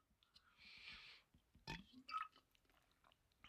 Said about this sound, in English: Sorry. I don't mean for that to be my swallowing ASMR. I cannot. I don't know if you could hear that, but my mouth's so dry I had to drink water.